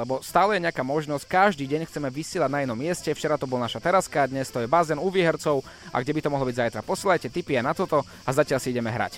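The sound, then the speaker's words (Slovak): Crickets chirp steadily in the background, a thin, high, continuous trill sitting faintly beneath a man talking nonstop in the foreground. “Tie cvrčky je počuť v pozadí, áno, ale mňa by zaujímalo, že čo okrem cvrčkov tam vy zažívate”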